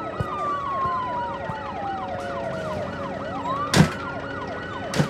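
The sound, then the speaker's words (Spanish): An ambulance siren wails in quick rising-and-falling sweeps, loud, with a steadily falling tone beneath it, as a person boards the ambulance, plus a sharp knock near the end and a faint one at the close. “Dana sube a la ambulancia y desaparece.”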